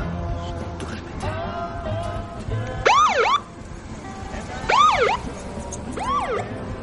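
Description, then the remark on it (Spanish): A police car's siren wails in three sharp rising-and-falling sweeps as it passes by on a street at night, over a low rumble of street noise, loud and piercing, with no one speaking. “Un coche de policía pasa de largo.”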